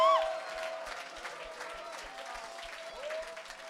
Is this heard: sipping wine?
no